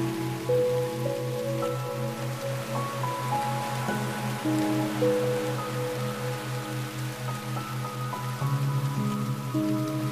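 Steady rain patters on a tent while camping by the Atlantic, a continuous soft hiss of drops with no pauses, while gentle sustained music tones and a slow low pulse play underneath.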